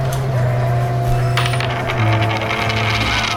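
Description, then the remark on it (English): A coin rolls and rattles across a hard tabletop, spinning with a steady metallic ringing before clattering down and settling, clear with no talking over it. “Here, let, let, let, let him roll his own coin.”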